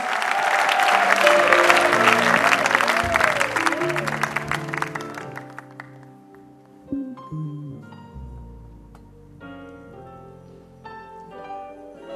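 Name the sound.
audience clapping and cheering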